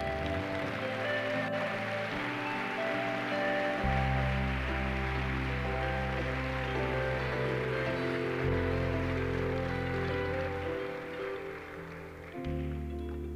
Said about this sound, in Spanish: Apláudele a Jesús.